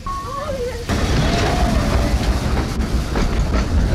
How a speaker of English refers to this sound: Four carriages on here now, and oh, here's the uh, next train now coming in from Port Erin End. This is number 12, the Hutchinson.